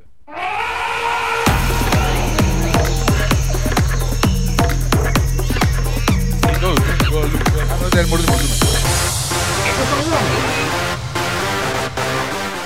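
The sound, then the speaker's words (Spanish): Layered animal sound effects, bird chirps, elephant trumpeting and monkey chatter, play loudly over a steady, rapid thumping beat that drops out near the end, with no talking. “Pues sí, amigos, salen ahí aves, este, elefantes, changos.”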